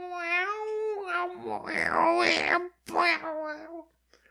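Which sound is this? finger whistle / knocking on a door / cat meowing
cat meowing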